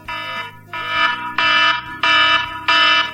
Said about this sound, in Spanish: Que lo he interrumpido un poco con el de alarma que sonaba demasiado fuerte.